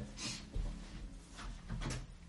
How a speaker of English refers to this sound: I'm just going to push the door to because the telly's on next door